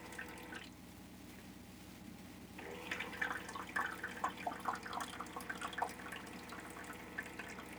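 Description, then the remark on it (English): An ice maker aboard the boat Dawn Treader trickles and drips, then a few seconds in it breaks into a busy run of small clinks and splashes over a steady low mechanical hum, with no one talking. “Yeah, that's our ice maker, another of our luxuries that we um, indulge in here on the Dawn Treader that most boats do not have.”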